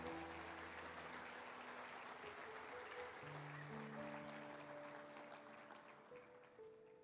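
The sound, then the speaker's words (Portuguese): An audience claps for Jesus continuously for about seven seconds, a dense crowd of hands over sustained keyboard chords, the applause easing slightly toward the end. “Dê uma salva de palmas a Jesus, aleluia.”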